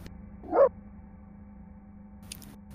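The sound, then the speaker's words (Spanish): A single short bark from the lady of the house's dog sounds once near the start, somewhat muffled and moderately loud, over a steady low background hum. No one speaks. “Parece un perro ladrar.”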